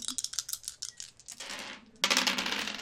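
A small die rolled on a desk clatters across the hard surface in a quick run of sharp clicks, followed by a brief scraping rush and a louder burst of rattling as it tumbles off the desk.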